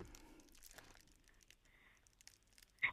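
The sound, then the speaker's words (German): A plastic bag crinkles and rustles in soft, irregular crackles for a few seconds, ending in one sharper, louder crunch. No one speaks. “Also ich knister schon mal mit meiner Plastiktüte hier.”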